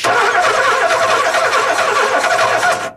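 A car engine is started by a driver on a driving exercise, cranking to life and revving loudly and steadily for about three seconds on the accelerator pedal, then cutting off abruptly.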